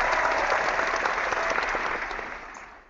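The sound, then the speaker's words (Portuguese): A crowd claps and applauds in a dense, steady wash of hand claps that holds strong before gradually thinning and fading out toward the end. “A plateia ensandecida do Por Falar em Corrida é, se despede também.”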